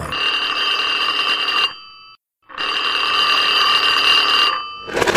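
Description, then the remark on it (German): A telephone bell rings in two long, loud bursts of bright, steady metallic trilling separated by a short silent gap, with the start of a third ring at the end, before the answering machine of a couple picks up. “Hier ist der Anrufbeantworter von … und ….”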